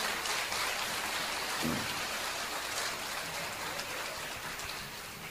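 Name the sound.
audience applause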